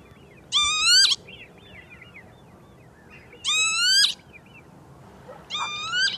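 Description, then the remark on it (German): Three loud, wheezy northern lapwing calls ring out at spaced intervals, each a drawn-out slurred cry, with faint background chirping and a low outdoor rumble between them. “Es ist eine Dialektform vom Kiebitz. Kiebitz, diesem kleinen äh, Vogel.”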